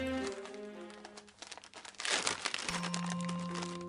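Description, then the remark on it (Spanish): A short burst of crinkly paper tearing as the paper wrapper is peeled off a peach crayon, rustling loudly for about half a second over soft, sustained background music. “¿Por qué me quitaste mi envoltura?”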